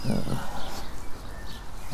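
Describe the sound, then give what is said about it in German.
A dog lying in front of a garden bench grumbles in greeting as a man pets it, a low, throaty rumble that rises and falls for a couple of seconds, with soft background noise underneath. “Rolf streichelt Tabo. er will immer Hallo sagen, ne?”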